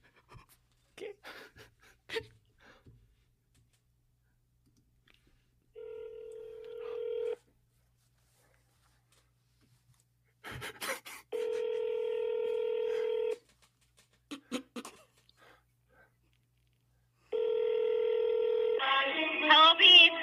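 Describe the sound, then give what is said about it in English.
A telephone gives off several sustained electronic DTMF tones, each lasting a second or two, with quiet clicks and taps between them, as a number is keyed in to make a quick phone call to a karaoke venue. “I just got to make a quick phone call.”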